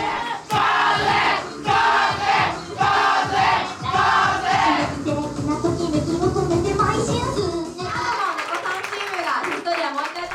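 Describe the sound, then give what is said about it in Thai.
A loud rock concert crowd of young working-age and middle-aged men claps in a steady rhythm while shouting, cheering, waving arms and stomping feet, the rhythmic clapping fading toward the end as the roar of voices continues. “ชายหนุ่มวัยทำงานและวัยกลางคน ยืมปรบมือส่งเสียงโห่ร้องสะบัดแขนและโยกตัวกระทืบเท้าเร้าใจ เรากับกำลังชมคอนเสิร์ตเพลงร็อก”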